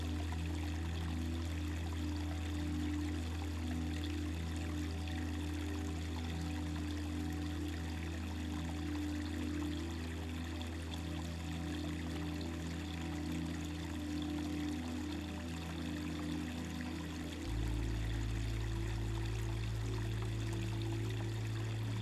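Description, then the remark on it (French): Steady rushing of a flowing river, water burbling continuously over stones with a deep low rumble, shifting slightly near the end; no voices. “Méditation au son de l'eau”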